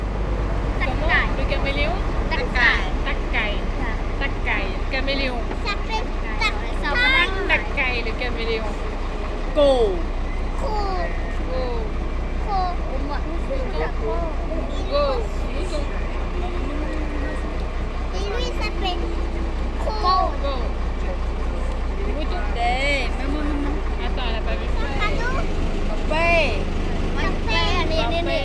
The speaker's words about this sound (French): Une journée en bateau, le long d'un lac puis d'une rivière, c'est agréable, mais c'est un peu long. Alors forcément, on discute avec quelques personnes.